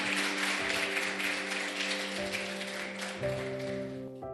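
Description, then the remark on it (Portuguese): A church audience applauds steadily, raising hands in praise of Jesus, a dense crackling wash of clapping over sustained keyboard chords that shift pitch a few times, with no clear speech. “Se você é soldado dele, igreja, levante as mãos, aplauda a ele, glorifique a ele, em nome de Jesus.”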